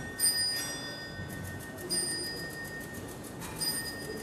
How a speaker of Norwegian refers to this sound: Med døden som slår på Strasbourg-klokken fra 1589